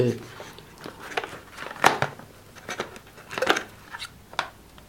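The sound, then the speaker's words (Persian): Rustling and crinkling as the packaging of an Apple SuperDrive, introduced in 2008, is opened, with a string of sharp clicks, scrapes and snaps coming in irregular bursts at moderate volume. “اما این سال 2008 معرفی شد با هم بازش میکنیم این چه شکلیه بسته بندی اینکه این توه در واقع سوپر درایو”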